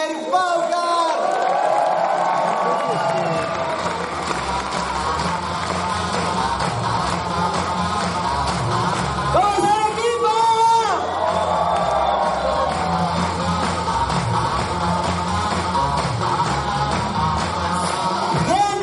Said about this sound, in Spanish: Así que quiero que le den un fuerte aplauso al rango doble platino de la compañía